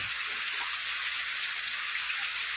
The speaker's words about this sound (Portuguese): O tempo aqui está chuvoso, está dando alguns ruídos no fundo.